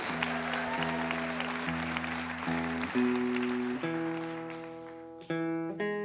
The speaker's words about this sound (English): Thank you so much for listening. How about a hand